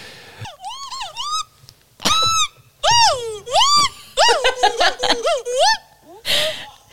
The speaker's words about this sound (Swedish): Jag måste spela upp ett ljud av en kul apa. Jag måste bara göra det. Ett apljud? Ja. Alltså det här är så här, när man bara är exalterad och glad.